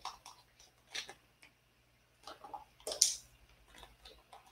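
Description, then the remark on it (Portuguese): Someone takes a few quiet sips of water, with small wet slurps, soft swallowing clicks and brief pauses between them. No one talks. “Eu gosto muito tomar um golinho d'água.”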